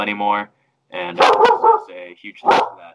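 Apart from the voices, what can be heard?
dog barking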